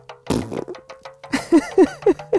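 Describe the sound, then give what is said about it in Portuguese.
A cartoonish fart sound effect: a rough, sputtering blast up front, then a quick run of four short, squeaky, pitched toots in a bouncy rhythm, fairly loud. “Ele era um tambor que falava, ria, brincava, soltava pum.”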